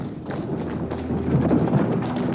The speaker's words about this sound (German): Es klingt wie ein Streit. Dazu viele Schritte, schwere Stiefel. Das Wort Polizei fällt.